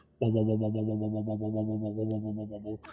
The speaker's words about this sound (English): as you turn the dial the oscillation becomes more oscillating like there's more up and downs it sort of increases the frequency of the wave